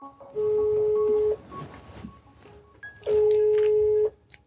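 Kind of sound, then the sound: signal or alarm, telephone call ringing tone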